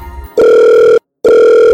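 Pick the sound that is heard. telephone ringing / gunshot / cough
telephone ringing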